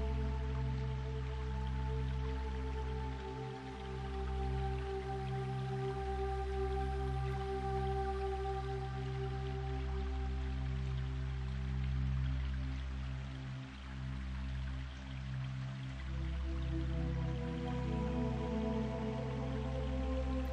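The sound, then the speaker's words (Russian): A gurgling stream flows steadily and continuously through a dense, untouched forest, with small drips and splashes over a constant rushing wash and a low, even drone underneath. No voices are heard. “Бурлящая вода течет мимо тебя.”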